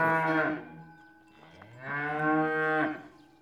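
Two long, loud cow moos follow one another, each a deep drawn-out bellow with rich harmonics, the second rising and sustained before trailing off, with no talking, from cows at a cow fight in Valais, Switzerland.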